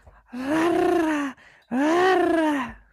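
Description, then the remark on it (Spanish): A person imitates a swallow's call with two drawn-out, strained vocal cries, each about a second long, separated by a brief pause; fairly loud. “Ese no es faraón teniendo gripe, ¿eh? ese es una golondrina, mano.”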